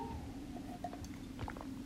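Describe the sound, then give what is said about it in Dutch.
Someone takes a quiet sip of water, with soft wet mouth sounds and a small swallow over a faint steady background hum; no one speaks. “Ik pak ondertussen even een slokje water.”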